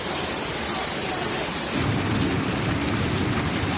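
thunderstorm with heavy rain

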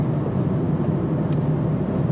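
car interior road noise

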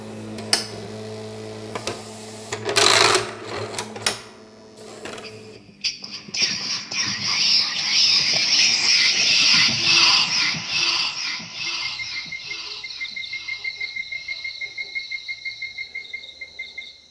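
frog croaking

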